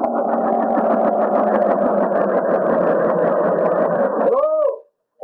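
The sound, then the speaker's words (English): A big helicopter lands with a loud, steady engine roar and rapid rhythmic chopping for about four seconds, then the pitch warbles and sweeps down before the sound cuts off abruptly. “Oh, that's some big helicopter.”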